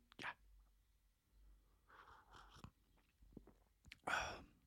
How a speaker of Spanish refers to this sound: Tomaremos nuestro primer trago. Eh, se pegó al posabazo, pero ya